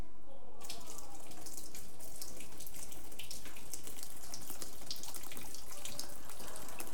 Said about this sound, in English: Do you hear the quantity of drips?